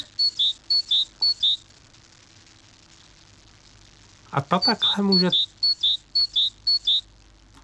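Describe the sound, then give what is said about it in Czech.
A great tit sings its bright, repeated two-note phrases, a short burst of several then a pause, then more. A person speaks briefly partway through, over the song. “A já se dívám my jsme si už poslouchali síkorku koňadru, to si jenom zopáknem.”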